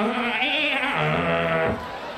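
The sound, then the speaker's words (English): A goat lets out one long, quavering bleat, loud, wavering in pitch for nearly two seconds before breaking off, with no talking over it. “Fucking goat, help me!”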